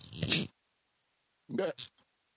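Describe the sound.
A short, soft hiss of gas escaping as the twist-off cap of a bottle of Chippewa Pride Beer, from a brewery in Chippewa Falls, Wisconsin, is turned, followed about a second later by a brief murmur of speech.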